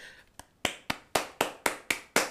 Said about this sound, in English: I'm giving you the claps. No, I'm giving you the claps. No, no, I'm giving you the claps.